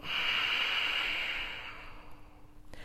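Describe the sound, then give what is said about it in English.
A long, steady breath blown out through the lips, demonstrating the out-breath of controlled conscious breathing, an airy hiss lasting about a second and a half before fading away into quiet. “So, in controlled conscious breathing, you're breathing in like this, you're breathing out like this.”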